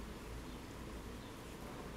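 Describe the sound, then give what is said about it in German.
A soft, steady drone of many honey bees buzzing together around a beekeeper's self-built hive boxes, a continuous hum with no pauses and no voices. “züchtet Veysel Kilic Bienen”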